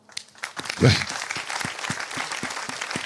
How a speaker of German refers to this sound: Aber einen großen Applaus